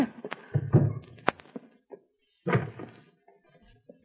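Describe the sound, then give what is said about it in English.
A door that locks from the inside is unlocked and opened: a few muffled thunks and a sharp metallic click, a short pause, then a heavier clunk as it swings, with faint rattling after. “This door locks from the inside.”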